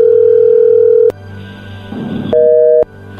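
A steady, loud telephone dial tone hums for about a second as a call is placed, cuts off, and after a short stretch of faint line noise a brief higher tone beeps once. The call goes unanswered and is sent to voicemail. No one speaks.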